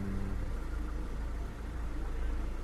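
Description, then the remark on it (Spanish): Steady low rumble of other cars' engines and road noise heard from inside a stopped electric car, a continuous drone with slight swells as vehicles pass; no voices. “Muy curioso que cuando va uno montado en el coche eléctrico se escucha los motores y los ruidos de los otros coches.”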